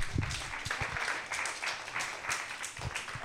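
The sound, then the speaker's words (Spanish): A crowd applauds someone for their good resolutions, steadily, a dense crackle of many hands clapping at once with no single claps standing out, holding an even, moderate loudness throughout. “Pues como esos son muy buenos propósitos, te vamos a dar un aplauso.”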